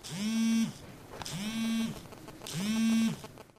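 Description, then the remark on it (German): A mobile phone vibrates in three short, even buzzes, each about half a second long with brief pauses between, fairly loud with a rattling, humming tone and no talking. “Im Mobiltelefon”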